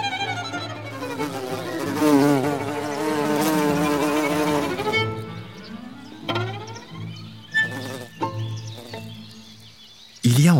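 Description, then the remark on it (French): Droning buzzes of wild bees in flight, rising and falling in pitch, some deeper and some higher, running steadily for several seconds before breaking into short, separate bursts. “Leurs différents bourdonnements, plus ou moins graves ou aigus, nous est familier.”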